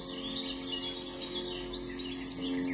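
A flock of birds returning at dusk chirps and sings in a dense, continuous chorus among woods, away from cars and houses, soft, with a steady low hum running underneath and no one speaking.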